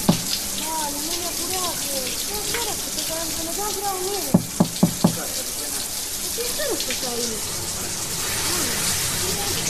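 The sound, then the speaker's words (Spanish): A shower runs at home, its spray a constant broad hiss from start to finish. Midway, four quick sharp knocks on the door ring out, and a faint muffled voice drifts beneath the water. “Matías en su casa se ducha, apoya la cabeza en la pared, piensa.”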